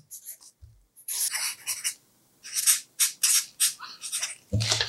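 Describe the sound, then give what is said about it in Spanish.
A pen scratches across the paper of a red notebook in quick, uneven strokes with short pauses between them, writing a phrase in Hebrew transliteration, fairly clear, with a soft thump near the end and no talking. “una frase que te guste mucho y que me la dejes aquí en la libreta roja”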